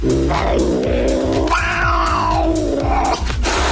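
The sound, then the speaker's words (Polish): An angry black cat yowls in one long, loud wail whose pitch rises and wavers, with a steady low rhythmic beat pulsing underneath. “Ma ktoś może kaganiec dla kota?”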